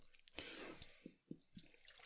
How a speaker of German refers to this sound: Trinkt jetzt einen Schluck Wasser und äh, ja, ich lasse euch einfach mal kurz damit allein.